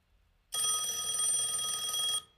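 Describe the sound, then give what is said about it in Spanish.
A telephone rings with a loud, continuous electric bell trill lasting almost two seconds, clear, then cuts off abruptly. No one speaks. “¿Qué escuchas? El teléfono.”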